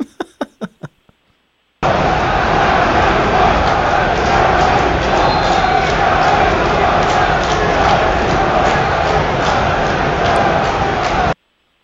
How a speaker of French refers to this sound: les Ultras aussi qui ont scandé aussi le nom de Chalibam durant le match